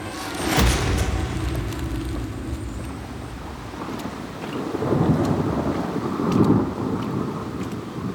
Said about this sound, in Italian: Piove, ripariamoci qua, qua sotto questo albero.